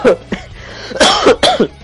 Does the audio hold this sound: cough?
yes